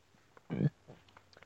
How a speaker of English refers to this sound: Uh, sorry about the burps. I had some leftover macaroni and cheese, macaroni and cheese and bacon, and there's a Gruyere cheese, and um, I think there's like onions in it.